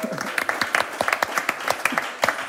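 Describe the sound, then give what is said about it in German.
An audience applauds for Kids World with dense, irregular clapping that holds steady at a lively level throughout, a crowd of hands clattering together with sharp, crisp transients. “Oh Yeah, ein einfach Applaus für Kids World.”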